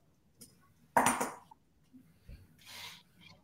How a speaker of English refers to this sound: These are my, these these are some of my favourite gold coins. So these are the most famous coins of all time. This is the the Krugerrand. This is the gold Krugerrand. This isn't 24 karat gold. This is 22 karat gold.